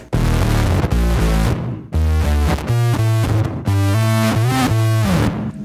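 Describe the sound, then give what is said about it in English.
A loud, distorted bass synth riff, the opening riff of a song, pumps out in choppy, repeating phrases with brief gaps, thick and buzzy with harmonics stacked high above the low notes. No voices. “I use the bass synth also.”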